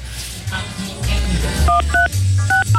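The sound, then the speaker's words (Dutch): A quick run of about five short telephone keypad tones beeps in the second half, each a clear dual-pitched blip, set against a low, murky background rumble with no talking. “Het heeft ook iets gezelligs, hoor, die bliepjes.”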